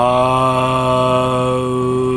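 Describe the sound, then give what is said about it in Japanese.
A single voice holds one long chanted vowel at a steady pitch, fairly loud, as part of a yoga practice combining breathing and meditation, at about 4:30 in the morning in Himeji, droning unbroken from start to finish with no other sounds around it. “あれは何ですか何の時に出す声あれはねあのー、何の時に出す、まあ、呼吸法とそういう瞑想の組み合わせみたいなヨガなんですああそうな瞑想しながらな”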